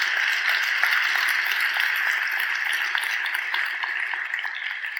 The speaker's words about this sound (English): Uh, it is a pretty packed house, so let's get the ball rolling with a big round of applause for all of you to make you feel good.